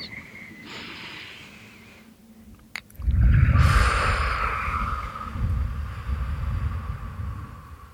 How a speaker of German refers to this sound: Legt dazu jetzt noch eure Hand auf euren Bauch oder auf euer Herz und atmet tief ein und aus.